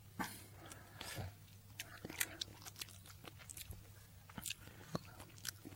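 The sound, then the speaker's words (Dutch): Wet mouth sounds of chewing and lip smacking as a person tries to work saliva into a dry mouth, a steady series of moist clicks and smacks repeating irregularly for several seconds with no talking. “Ja, ik probeer dan wel nou op een andere manier speksel in mijn maal te krijgen.”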